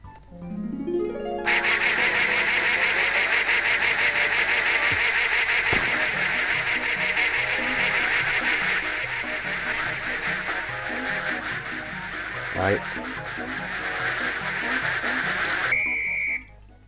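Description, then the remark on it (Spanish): A short rising run of electronic tones gives way to a dense, continuous chorus of many ducks quacking over one another in an audio game, loud and steady for about fifteen seconds before cutting off abruptly, as the player centres the ducks to photograph them. “Bien, aquí hay que centralizar el pato o el grupo de patos y una vez centralizado pulsar la letra F para tomarle la instantánea.”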